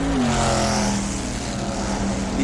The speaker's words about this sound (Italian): No, scusa, è passata la moto, pensavo.